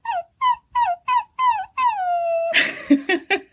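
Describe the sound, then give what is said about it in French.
Someone imitates a whimpering puppy as a singing voice technique: six short, high whines that dip in pitch, one long drawn-out whine, then a few rougher, breathier yelps. It's fairly loud and has no talking. “Faire le petit chiot.”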